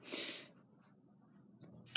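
A single abrupt sneeze lands right up against the microphone, loud and breathy, then fades into quiet background hiss with a faint click near the end. No one speaks.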